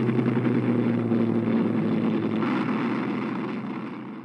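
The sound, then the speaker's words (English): A steady, heavy drone of Avro Lancaster bomber engines of RAF Bomber Command taking off for a night raid in 1944, a deep throbbing hum that holds level and then eases off slightly as the planes pass. “a thrilling, if somewhat poetic, commentary under the sight and sound of Avro Lancasters”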